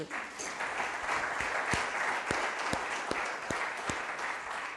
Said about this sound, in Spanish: Amén. Dele un aplauso al Señor, por favor.